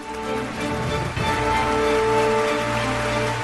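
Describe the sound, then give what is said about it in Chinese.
Sustained applause from an audience, a dense, steady crackle of many hands clapping at once, holding fairly loud for the full few seconds with no voices. “别着急鼓掌，没说完呢。”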